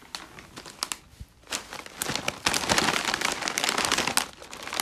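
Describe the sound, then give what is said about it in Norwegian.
A Sørlandschips potato chip bag, sea salt and apple vinegar flavour, crinkles and crackles in dense, irregular bursts, faint at first and then growing louder and more continuous, with sharp plasticky crackles throughout and no voices. “Sæbla sprø sommerpakker i 50 chipsposer.”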